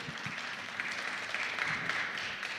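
An audience applauds steadily, a dense wash of many hands clapping at a fairly even level throughout, with no voices standing out.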